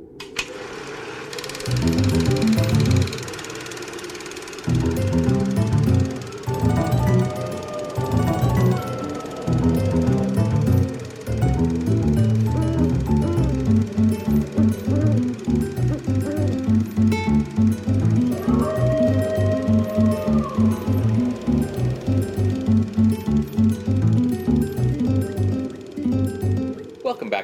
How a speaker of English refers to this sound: You're going to hear a brief musical break, and when we come back, we will discuss The Flying Serpent.